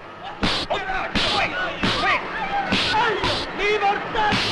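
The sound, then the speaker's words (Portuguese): A series of sharp, loud slaps to people's faces, roughly five or six hits at irregular intervals, ring out over a lively crowd of voices shouting and chattering at a train station in Florence as people at the train windows say goodbye. “De esperar um trem sair, várias pessoas estão na janela se despedindo de seus familiares e tal, e eles começam a dar tapa na cara das pessoas.”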